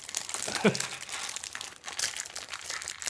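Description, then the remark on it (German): Continuous crinkling and rustling of a plastic bag, found inside an opened package, being opened and handled, with irregular bursts of crackle and a brief vocal sound near the start. “Da ist eine Tüte drin.”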